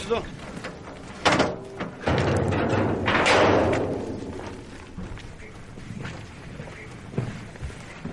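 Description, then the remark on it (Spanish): Soldiers slam a door shut as they leave, with a loud, heavy thud and rattle, followed by a few softer knocks and bumps, while voices murmur in the background. “Cuando salen, los soldados tiran la puerta y Klaus se aleja preocupado.”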